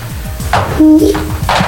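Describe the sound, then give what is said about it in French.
A man's voice tries to imitate a turtle dove, giving a brief low hummed coo that swells for a moment over a steady low pulsing background. “La tourterelle, vas-y. la tourterelle. Il fait la tourterelle, fait comme ça, il fait, ça fait”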